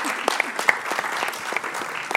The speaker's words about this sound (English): Um, you know, I think we should pause and give a small amount of applause for the bravery of some of the audience.